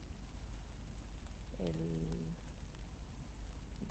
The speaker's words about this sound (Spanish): Em, se, se, estará oyendo la lluvia. Me he metido debajo de un árbol, pero no es un árbol muy eficiente en términos de parar la lluvia.